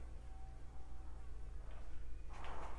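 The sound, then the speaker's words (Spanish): A bee or fly buzzes, a thin wavering drone that drifts in pitch and swells louder near the end, over a steady low hum. “Ah, no mames, la puta abeja de nuevo. Esperen. ¿O es una mosca?”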